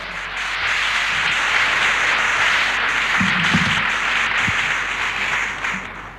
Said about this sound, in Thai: ขอให้ปรบมือให้กับตัวท่านเอง